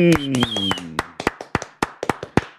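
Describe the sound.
Applause of about a dozen crisp, loud hand claps in a quick, slightly uneven rhythm. A voice sounds over the first claps, then the clapping continues on its own.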